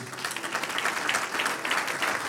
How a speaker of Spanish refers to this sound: Un aplauso al que vive.